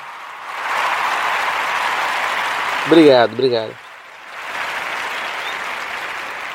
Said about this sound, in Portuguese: Eu fiquei super orgulhoso de mim. Não, sério, eu acho que eu mereço uma salva de palmas.